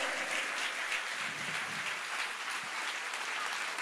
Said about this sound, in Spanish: Si le vas a dar un aplauso al Señor, dáselo bien.